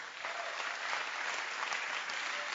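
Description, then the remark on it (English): An audience listening to a preacher claps their hands together in a dense, sustained round of applause, steady and fairly loud throughout with no pauses, the many overlapping claps blending into a continuous wash. “Can you clap your hands?”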